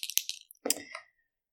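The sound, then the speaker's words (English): Two sparkly Constantina dice rattle with quick, bright clicks, then tumble in a short clatter onto a hard surface before falling silent, rolled for an insight check with advantage. No one speaks. “Oh, I'll use both of my sparkly Constantina dice.”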